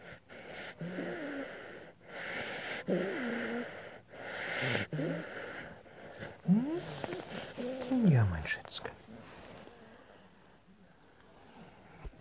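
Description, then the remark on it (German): An old, ailing pet animal snorts and wheezes in a series of raspy, irregular breaths, with a few short vocal squeaks rising and falling between them, then trailing off into quieter breathing. “Ihr schnauft ein bisschen.”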